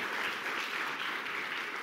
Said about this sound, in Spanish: Dele un fuerte aplauso al Señor. Aleluya.